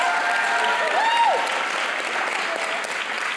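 Steady audience applause, a dense wash of many hands clapping at an even, fairly loud level throughout, with a brief whoop or whistle rising above it early on.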